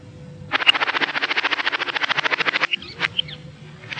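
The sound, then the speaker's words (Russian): Magpies chatter in a fast, rattling burst of harsh repeated notes lasting about two seconds, followed by a few scattered calls, clear with no talking. “Это птицы. Птицы кричат. Сороки белобоки шебуршат.”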